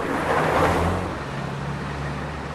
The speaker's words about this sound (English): And if you listen, you'll hear the sounds that you always hear in a car park. But listen more carefully. There are other sounds.